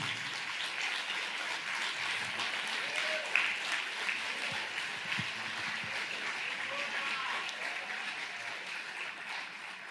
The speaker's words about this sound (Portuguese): Pode aplaudir a Jesus.